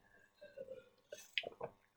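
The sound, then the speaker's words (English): Someone takes a drink of water, with a few small wet sips and swallowing sounds in quick succession. The sounds are quiet, and no one speaks. “Sorry, a bit of a water break.”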